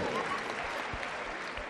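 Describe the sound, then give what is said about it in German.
Steady applause from an audience welcoming Utz Träger, a dense wash of many hands clapping at an even level for a couple of seconds, with no break in the sound. “Also der Utz ist quasi euer Mann, insofern auch ein herzlichen Applaus.”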